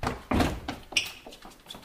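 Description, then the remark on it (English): A door opens with a heavy thunk, followed by a few lighter knocks and latch clicks fading into quiet. The sounds are moderately loud, with no one talking. “An open door.”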